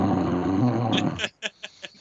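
A person makes a loud, harsh, rattling snore into the microphone for about a second, imitating snoring, followed by a few short breathy bursts.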